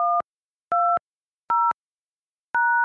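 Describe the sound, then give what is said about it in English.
Four telephone keypad tones entering a PIN to join a Telelink Conference Pro conference call. Each is a short, steady dual-pitched beep, spaced roughly evenly with silent gaps between them and no talking. “Welcome to Telelink Conference Pro. Please enter your PIN.”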